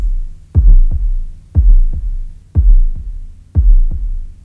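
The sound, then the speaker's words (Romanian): A slow, steady heartbeat thumps four times, each beat a deep double pulse, heavy with a low hum between beats and no voices, opening a music album. “Naștere, bogăție, timp, nebunie, conflict, moarte, totul este legat într-un perpetuum ciclic unde începutul este o bătaie de inimă, iar finalul la fel exact ca piesele care închid și deschid albumul.”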